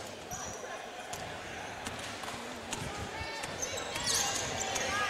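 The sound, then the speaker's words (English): A basketball bounces repeatedly on a hard gym floor in uneven thumps as the point guard brings the ball up the floor during a game, with sneaker squeaks and a steady murmur of crowd and voices filling the background. “Ross, the point guard, brings the ball up the floor, hands off to Maddie Belmore”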